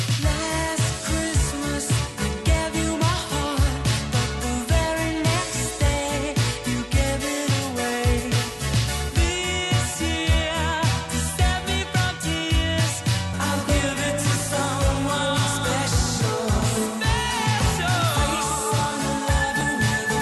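A bright, upbeat Christmas pop song plays steadily at full volume, with a driving beat, layered synths and melodic vocals, and no one talking over it.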